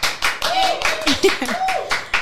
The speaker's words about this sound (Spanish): Thank you. Aplausito.